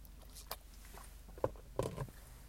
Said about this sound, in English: Just bear with me, just a got a cough. Let me just have a drink of water.